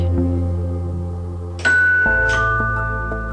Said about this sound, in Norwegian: Mange kjenner jo Jehovas vitner som eh, de som kommer og ringer på døra di og venter helt til du åpner, for å prøve å få regne inn i eh, trossamfunnet deres.